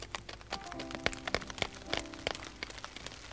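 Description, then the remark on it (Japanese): Scattered large, cold raindrops begin to fall, striking a hard surface in an irregular patter of sharp taps, with a soft steady tone humming faintly underneath. “ぽつりぽつりと雨が落ちてきた大粒で冷たい雨”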